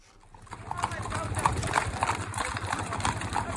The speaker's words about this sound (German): Mit diesem Geräusch beginnt der Abend auf der Ranch. Hundert Pferde dicht an dicht klappern am Anwesen vorbei, einen Hügel hinunter.